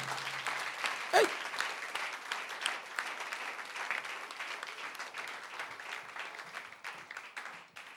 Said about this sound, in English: Can you clap your hands for wisdom?